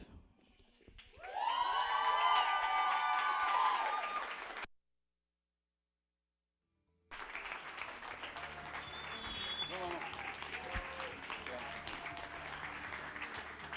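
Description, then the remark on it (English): An audience bursts into loud, sustained applause for Joseph Bonilla, mixed with cheers and whoops, breaks off abruptly into a couple of seconds of silence, then clapping resumes as a steady, slightly softer wash. “one more round of applause for Joseph Bonilla.”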